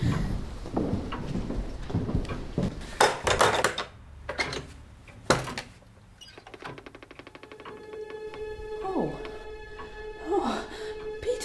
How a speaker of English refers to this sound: I'll have to open the back door and let in the moonlight.